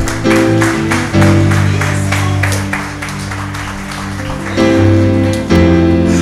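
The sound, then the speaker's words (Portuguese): An audience applauds Jesus steadily over loud sustained keyboard chords, the clapping forming a dense wash with rhythmic accents throughout. No one speaks. “Vamos aplaudir a Jesus, pelo amor de Deus.”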